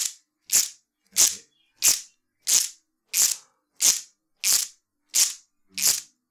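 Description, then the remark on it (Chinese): An Okinawan ritual wooden-slat clapper, many wooden boards strung together with rope that look like a fan when gathered, sounding as the boards slide against each other, plays nine sharp, crackling clacks at a steady, unhurried pace, each a bright rattling burst of slats snapping together, followed by a short pause; no one speaks. “它看上去就是有很多的木板用绳子编编辑起来的。”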